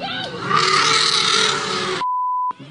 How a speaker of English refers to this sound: Trumpet sounds like it's friendly. It's like ah, oh, an elephant but this is an angry trumpet cry and it's spooky. So while you can't see this elephant right now, you can really hear it.